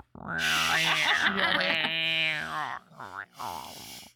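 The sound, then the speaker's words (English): A person's voice imitates an angry cat with a loud, drawn-out, wavering yowl, followed by a few shorter strained growling bursts. “Sounds like an I'll angry just... cat.”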